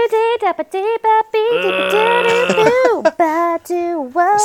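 A snippet of a band song from the 1997 special edition film re-release, with warbling, bleat-like vocals sliding up and down in pitch over a brief stretch of sustained layered tones, played fairly loud with no talking over it.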